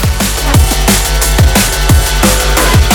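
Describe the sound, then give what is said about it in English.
A loud electronic dance track pounds along with punchy, pitch-dropping kick drums every half second or so, dense synths filling the high end, and no voices over the music. “This is probably in everyone's DJ set at some point or another.”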